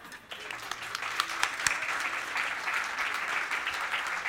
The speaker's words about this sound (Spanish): Ok, vamos a darle un aplauso.